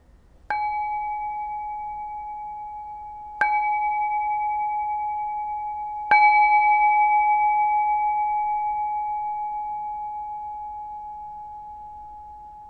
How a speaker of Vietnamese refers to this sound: Hãy nghe từ khi tiếng chuông bắt đầu cho đến khi nó nhỏ dần và kết thúc.